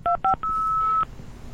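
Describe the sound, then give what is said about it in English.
Two short telephone keypad beeps followed by a longer sustained tone, clear, like a phone dialing and connecting, with no talking. “Is this a sound drop of connecting uh, to.”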